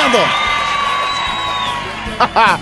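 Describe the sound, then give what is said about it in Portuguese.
A recorded studio audience cheering and whooping, played in by the sound technician on Silvio Santos's TV show when the live audience is flat, with loud excited voices overlapping into a dense crowd roar, ending in a couple of higher whoops. “Quando, quando o sonoplasta percebe que a plateia tá desanimada, aí já entra a gravação da plateia animada.”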